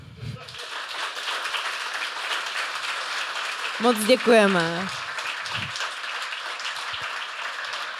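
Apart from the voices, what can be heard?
audience applause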